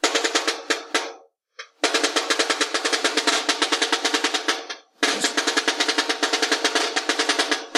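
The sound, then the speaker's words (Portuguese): A samba drum rhythm in the Mangueira style: dense, driving percussion with rapid repeated strokes and accented pulses, played loudly with two brief pauses before the groove resumes. No voices. “Então, só para eles verem de novo, fechar, faz o da Mangueira e faz esse do Partido Alto pra gente.”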